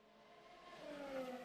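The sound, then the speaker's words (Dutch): A man imitates a Formula 1 car engine with a rising, whining rev that climbs in pitch and grows louder over about a second and a half, with no other talking. “van die kerel die een microfoon had gevonden naast de baan... en daar die nieuw Formule 1 geluidje begon te maken”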